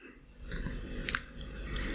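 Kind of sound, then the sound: food or drink, chewing peanuts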